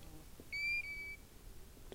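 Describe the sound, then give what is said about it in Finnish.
A fell bird gives one clear, drawn-out whistling call, a steady plaintive note lasting under a second, loud against a quiet, faintly rustling open-air background on a treeless fell in July. “Heinäkuussa tunturi viheltää kulkijan ympärillä. Menee melkein minne tahansa puuttomalla paljakalla. Joka puolelta kuuluu viheltävä ääni.”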